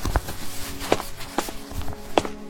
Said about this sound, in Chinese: 他踉跄着走到书桌旁，拿起一支笔，短短的几行字几乎耗尽了他全身的力气。